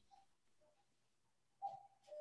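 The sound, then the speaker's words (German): A cuckoo clock hanging on an office wall sounds its two-note call, a higher tone followed by a lower one, after a few faint, soft tones. “Lange Geschichte, aber mein Papa hat hier in dem Büro eine Kuckucksuhr an der Wand hängen, die macht hier gerade Geräusche.”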